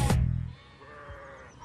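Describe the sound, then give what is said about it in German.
A sheep from a grazing flock bleats in a drawn-out, wavering call, following a brief rustling thump at the start, with a faint outdoor background and no voices. “Viele Kilometer ziehen die Schäfer mit ihrer Herde umher, warten geduldig, aber stets aufmerksam, bis Schafe und Ziegen genug gefressen haben.”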